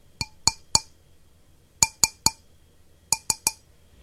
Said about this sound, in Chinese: 越来越急的敲玻璃声。